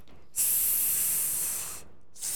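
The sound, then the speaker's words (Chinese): Food deep-frying in hot oil gives a steady, bright sizzle that holds for about a second and a half, cuts off briefly, then starts hissing again. No one speaks. “就是炸下去的那个声音 哦，OK，sizzling， 哎，对对对，然后还有捞起来卡哧卡哧的那种”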